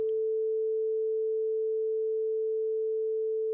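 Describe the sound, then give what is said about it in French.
A steady pure sine tone holds a single mid-pitched note for several seconds, smooth and unwavering at moderate loudness, with nothing else around it. “Sur l'axe horizontal, disons à gauche, le son pur,”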